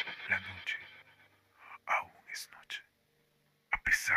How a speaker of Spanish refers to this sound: Le escucho susurrarme al oído.